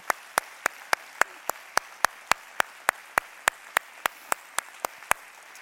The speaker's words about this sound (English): Stand for your granddaddy. Please let us applaud your granddaddy. Just stand.